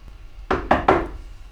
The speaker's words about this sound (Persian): به اتاق که رسیدم در زدم